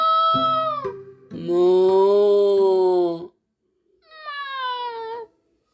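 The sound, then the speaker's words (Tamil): A voice imitates a tiny cat, giving three drawn-out meows with short pauses between them. The middle meow is the longest and loudest, with no talking. “இதோ பாரு குட்டியூண்டு பூனை வருது”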